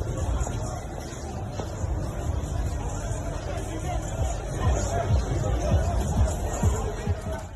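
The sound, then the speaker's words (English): A dense crowd hubbub with overlapping voices and scattered thumps and shuffling, suggesting a scuffle in a busy, noisy space, steady and moderately loud throughout. “You can hear the scuffle ensuing.”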